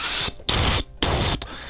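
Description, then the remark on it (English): Three loud bursts of harsh hissing spray, each roughly a third of a second long, separated by brief pauses, imitating a Dalek extermination ray-gun effect. No one speaks. “You're looking for your little air jet, aren't you? I haven't got it here. I wish I did.”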